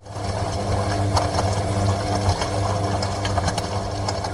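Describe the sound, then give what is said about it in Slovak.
A washing machine that is wearing out runs with a strained, steady motor drone, low and loud, with uneven clanks and rattles cutting through throughout; no one speaks. “A práčka? Práčka pomaly odchádza?”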